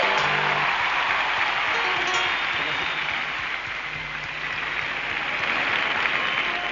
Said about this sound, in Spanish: Entonces, entonces, hemos buscado por todo Chile los mejores palmeros y los hemos encontrado y se, merecen el aplauso fuertísimo de toda la quinta. ¡Que salga fuerte!